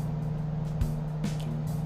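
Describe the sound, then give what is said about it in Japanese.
Steady low rumble of road traffic from a nearby main bus road outside, with a constant engine drone and passing vehicles swelling briefly, no voices present. “外のね道路やっぱ大通りバス通りが近いからね車の音がすごい聞こえる、まあ、ちょっとね慣れるまではあれなんですけど”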